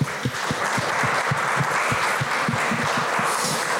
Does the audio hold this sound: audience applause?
yes